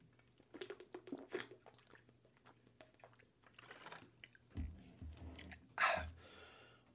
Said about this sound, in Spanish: Ahora, voy a tomar agua.